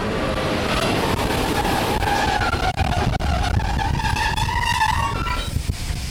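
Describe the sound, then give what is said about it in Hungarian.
A Leo Express private railway train arrives at Zsirenice station with a steady, loud rumble. High metallic squeals of brakes or wheels rise and fall as it slows, with a couple of sharp clanks partway through. “Az előbb ugye a prágai gyorsvonatot láttuk, most pedig megérkezett ugye itt a a sem magánvasút lényegében”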